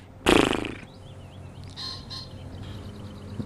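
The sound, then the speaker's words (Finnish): A male pheasant gives one loud, harsh, rasping crow that cuts off within half a second, followed by a few faint, high bird chirps over a quiet background hiss. “tuolla kauempana on toinenkin koira, se huus vielä, että kyllä tässä kumminkin pari kaveria on ja pitää.”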